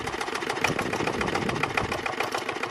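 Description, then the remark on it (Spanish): A small Asturian tractor, a 'tractorín' or 'pascualino', runs steadily: a loud, rapid rattling chug with a dense mechanical texture and no pauses. No one speaks over it. “Por ejemplo, sonido de algo muy asturiano. Un tractorín, un pascualino”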